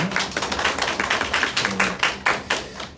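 A church audience applauds steadily to welcome visitors from other churches, many hands clapping at once in a dense, continuous wash of claps that stays fairly loud for the whole stretch, with no voices rising above it.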